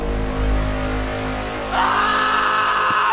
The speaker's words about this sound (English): Chris screamed and ran towards the truck.